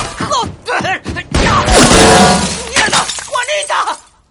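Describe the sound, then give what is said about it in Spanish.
A pistol drops and clatters onto the street in one loud, harsh crash lasting about a second, with people talking before and after it. “La pistola cae a la calle.”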